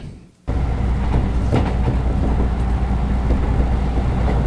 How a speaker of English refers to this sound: Well, three more minutes. That confounded train of mine is always on time.